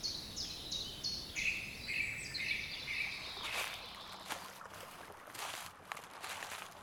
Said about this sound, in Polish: Jeśli dźwiękowo spotykasz się ze mną nie od dziś, to już znasz strumień, nad który idziemy. Tylko wtedy leżał tu śnieg, a dziś pod nogami szeleszczą nam suche, zeszłoroczne liście.